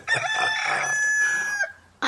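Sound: rooster crowing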